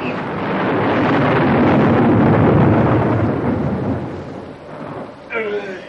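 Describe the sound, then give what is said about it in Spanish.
A loud, rolling thunderclap swells into a long, rumbling roar with windy storm noise, slowly fading before a voice begins speaking near the end. “Él, tras el tuérano, quedando sus ojos en blanco, se desploma a los pies de usted.”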